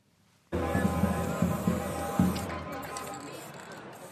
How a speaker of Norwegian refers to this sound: Han sprayer slagord mot president Mohammed Morsi